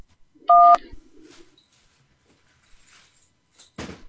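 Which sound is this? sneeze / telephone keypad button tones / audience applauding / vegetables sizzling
telephone keypad button tones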